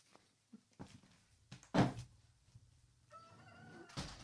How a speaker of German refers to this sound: Also, ich mache mal kurz die Tür zu.